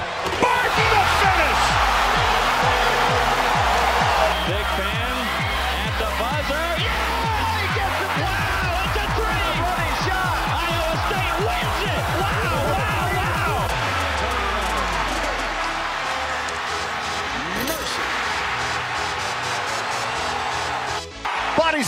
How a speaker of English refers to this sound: Tyrese Hunter on a run out, stuffed it with the right hand. Listen to this crowd.